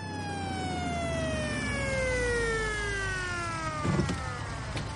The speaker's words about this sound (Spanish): Se acerca un coche patrulla.